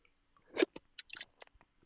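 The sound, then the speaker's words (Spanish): Someone drinking water: a cluster of wet sipping and gulping sounds, a stronger swallow followed by a few softer, irregular mouth clicks, with no talking. “Ah, perdóname, tomé agua.”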